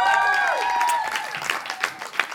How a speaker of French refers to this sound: Alexandre Forêt, mesdames et messieurs, on continue d'applaudir.